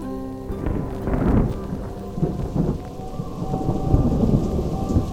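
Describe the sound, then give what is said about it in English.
A thunderstorm rumbles with deep, rolling thunder over steady, heavy rain, the low booms swelling and fading throughout while the downpour hisses continuously. “the brave crew of the lightning rig Stormhawk find themselves staring into the maw of the cruelest storm in a century”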